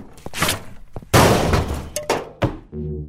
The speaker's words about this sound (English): He must have slammed it on the cabinet when he fell.